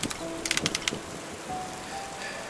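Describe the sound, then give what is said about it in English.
A hand crank on a casket lowering device ratchets through a quick run of sharp, evenly spaced clicks as a casket is slowly lowered the remaining feet into a grave, then falls quiet, leaving a steady hiss of intensifying rain. No one speaks. “He lowered his head and knelt down at the casket lowering device, placed his hand to the crank, and without a word, as the rain intensified, began to slowly lower his father the remaining feet to his final rest.”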